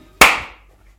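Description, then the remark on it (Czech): A single sharp hand clap, made on request, a loud bright crack with an instant onset that rings out and fades over about half a second, with no voices. “Já tlesknu ještě jednou.”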